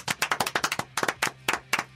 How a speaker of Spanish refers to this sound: Así suena el aplauso de un lunes. Aplauso de martes. Aplauso de miércoles. Aplauso de jueves.